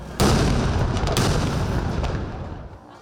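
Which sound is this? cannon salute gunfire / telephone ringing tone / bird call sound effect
cannon salute gunfire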